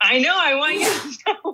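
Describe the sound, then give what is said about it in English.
A single sharp, breathy sneeze bursts out right after someone's drawn-out spoken words, followed by a couple of short vocal sounds. “Bless you”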